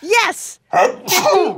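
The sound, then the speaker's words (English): A single sharp sneeze bursts out between short snatches of a young voice speaking, loud and breathy with a quick exclamation around it. “That's so terrifying you sneezed.”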